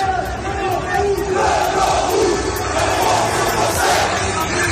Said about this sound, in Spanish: Francia empieza a vivir su sexta noche de disturbios y eso se nota a esta hora en las calles.